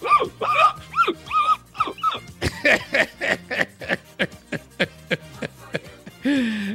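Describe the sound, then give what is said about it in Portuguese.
A person imitates a dog, letting out a rapid series of about fifteen short yips and barks in a steady rhythm, ending with a drawn-out whiny howl. “Gostou do meu latido”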